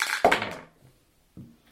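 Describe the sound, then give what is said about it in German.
A rattling clatter of dice being rolled, small hard objects tumbling and striking a surface, followed by a couple of softer taps as they settle. Fairly loud. The dice are rolled for a 'Spirit plus Aura' check, and the result is 17. “Okay, dann musst du aber auf ähm, okay, oh, Geist plus Aura würfeln.”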